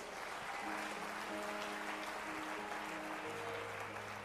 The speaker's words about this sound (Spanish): Denle fuertes palmas a Dios.